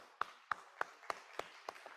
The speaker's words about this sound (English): So, to all, to all of our fathers here today, happy Father's Day. Some of you new fathers. I had the best, yeah, you can, clap for the fathers.